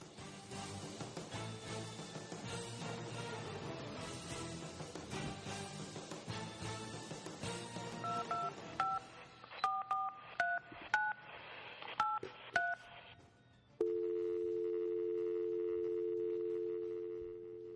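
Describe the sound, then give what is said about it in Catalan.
Short electronic keypad beeps from a phone being dialed to call a friend come in a quick, uneven run after a dense, noisy stretch, then give way to a steady, continuous telephone ring tone. “A veure si ens agafa el telèfon. Anem a provar.”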